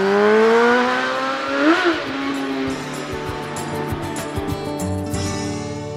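Motorcycle engines rev loudly on the road atop a dam in the Harz in sunny weather, one rising in pitch and roaring past, followed by a steady, layered rumble of a convoy of bikes idling and revving together.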